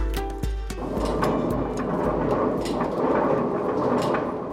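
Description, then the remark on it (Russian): Millstones of the old Bebrene mill, in a historic building in the village, grind in a steady, heavy rumble with a rough, gritty rattle over it. A brief humming tone and a knock open the sound, then the churning continues loud, with no voices. “Вы слышите, как работают жернова Бебранской мельницы.”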